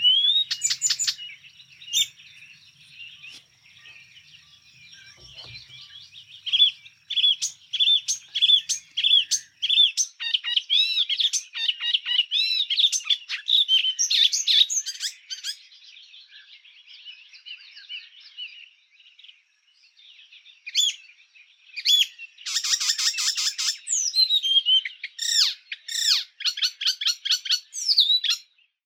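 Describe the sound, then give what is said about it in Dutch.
An icterine warbler sings a long, varied, chattering song of rapid high notes and harsh squeaky phrases, pausing briefly before resuming loudly, with no voices, on the Veluwe in the Netherlands. “Ik denk dat we heel veel ehm, Afrika horen in de zang van de spotvogel.”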